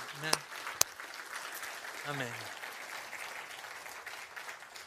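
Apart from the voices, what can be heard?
audience applauding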